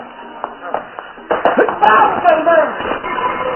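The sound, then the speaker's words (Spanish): A few soft thuds give way to a sudden, heavy impact, followed by a flurry of punching smacks mixed with strained vocal grunts and scuffling. “descarga un puñetazo. ¡Otro más! ¡Y otro!”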